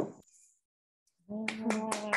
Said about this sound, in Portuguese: Ah, palmas